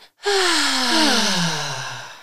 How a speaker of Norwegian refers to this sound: Så når man kjenner at man er redd ja. og man kanskje skal inn og gjøre noe som man syns er litt skummelt, så, så, eh, er det rett og slett at man skal puste inn litt raskt, sniffe nærmest. Sånn, kan du vise det? Og så sukker man.